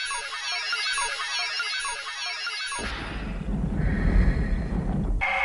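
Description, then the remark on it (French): A video game's main theme, remade by laying modern instruments over its MIDI tracks: a bright, dense electronic melody with high shimmering tones gives way midway to a fuller, bass-heavy passage of modern synth instruments, loud, with no voices. “il s'est dit qu'il allait reprendre également le thème principal de System Shock 1”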